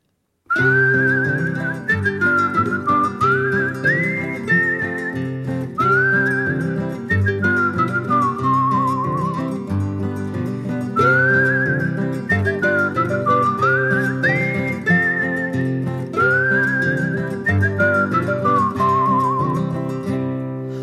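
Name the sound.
whistled folk song melody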